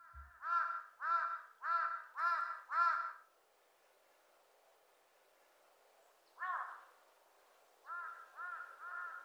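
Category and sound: bird, crow cawing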